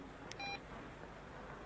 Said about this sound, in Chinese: 下了班张丽的手机突然响了，她收到了一条短消息